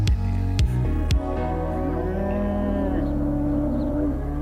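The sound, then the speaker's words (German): Cows low in long, drawn-out moos that overlap one another, a steady mooing chorus, with a few sharp knocks near the start and no talking. “Und was ihr eben im Hintergrund gehört habt, sind, genau, Kühe.”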